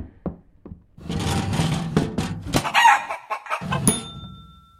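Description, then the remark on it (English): A few short clucks lead into a loud, raspy crow from a pet chicken named Hildegard that stretches for several seconds, followed by more clucking and scratchy calls, without any talking. “I remember reading that Benford brought his pet chicken Hildegard with him on his first journey.”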